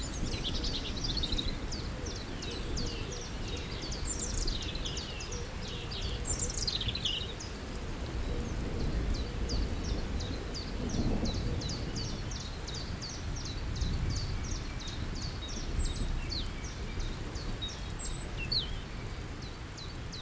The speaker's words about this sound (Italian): E infatti tutto tace. Sempre. Tranne gli uccelli. E gli uccelli cosa dicono?